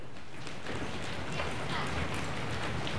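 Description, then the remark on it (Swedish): An audience seated in a hall stamping their feet on the floor, first those at the back, then the middle, then everyone, a dense, continuous rumble of many overlapping thuds, fairly loud and steady throughout, with faint voices mixed in. “Och så ni som sitter längst bak i lokalen, kan ni börja trampa med fötterna i golvet så får vi höra hur det låter.”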